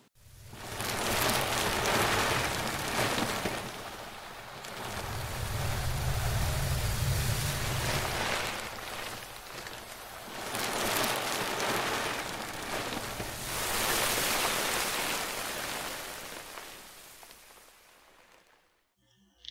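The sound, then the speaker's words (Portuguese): Plastic sheeting is shifted to imitate ocean waves: a broad, hissing rush that swells and recedes in about four slow surges, steady, with no voices, fading out at the end. “É o som do plástico ou o som do oceano? Consegue distinguir? Era de plástico.”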